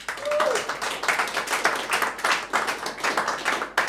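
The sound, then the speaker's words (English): An audience claps as a vote for the Star Wars pitch 'Max Rebo Killed Queen Amidala': a dense, steady patter of many hands that continues evenly throughout, with a brief high whoop near the start. “Clap now if you uh, are more compelled to click subscribe on Max Rebo Killed Queen Amidala.”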